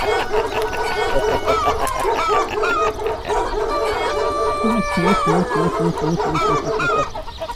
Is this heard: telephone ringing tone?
no